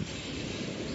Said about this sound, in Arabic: وانا قاعد على البحر دلوقتي عجبني منظر البحر القمر والنجوم وفي مركب عريضة فيها أنوار في نص البحر وصوت الأمواج زي ما انتوا سامعين كده عجبني جدا